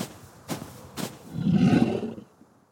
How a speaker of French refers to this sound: Et puis, j'entends du bruit derrière moi. Il y a quelqu'un dans l'arbre. J'appelle mon oncle. Est-ce que c'est lui? Je regarde mieux. Je n'en crois pas mes yeux. C'est un ours.